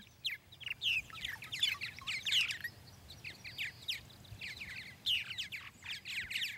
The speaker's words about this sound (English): Writer Mark Seth Lender recorded these purple martins at Hammonasset State Park in Connecticut, where their nest boxes are maintained by the Menunkatuck Audubon Society.